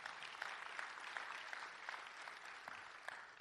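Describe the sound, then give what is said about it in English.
Steady audience applause fills the whole stretch, a dense wash of many hands clapping at a fairly even level, with scattered sharper claps popping out of the texture and no voices. “You can clap for that.”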